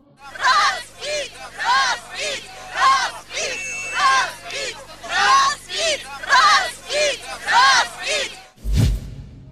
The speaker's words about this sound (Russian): Дзержинский простоит на площади 33 года и будет демонтирован во время августовских событий 1991-го. Дзержинского снимают с пьедестала под крики собравшихся «Разбить! Разбить!».